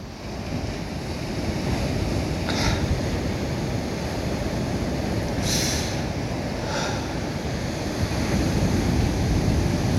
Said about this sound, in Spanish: que las olas peguen y no poder decirle a nadie, güey, qué bonito.